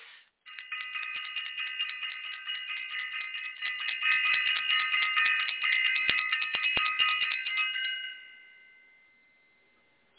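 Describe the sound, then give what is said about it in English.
A bright, high-pitched bell rings continuously and rapidly for about eight seconds with a steady metallic clang, then its tone fades away into quiet. No voices are heard. “I want to ring the bell. Let me do it again.”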